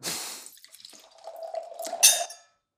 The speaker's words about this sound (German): Vielleicht schenken wir ein bisschen was ein und gucken mal.